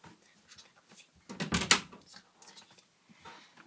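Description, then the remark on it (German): A door bangs shut loudly partway through, a single sharp thud with a brief rattle, surrounded by faint, quiet room noise. “Sorry, falls jetzt ein bisschen laut gewesen ist. Das war nur die Tür.”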